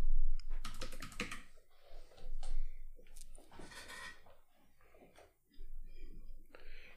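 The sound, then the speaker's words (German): Busy rummaging by someone searching for a pen: papers rustling and small objects clicking and clattering in irregular bursts, with a brief pause near the end. “Ich äh, suche gerade noch einen Stift.”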